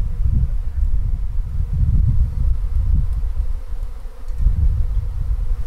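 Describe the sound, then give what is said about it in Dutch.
A dense, continuous low hum of many honeybees droning together, fairly loud, swelling and easing in gentle waves with no one speaking, as the swarm moves toward an apple tree. “Oh, je hoort, je ze verplaatsen, ja.”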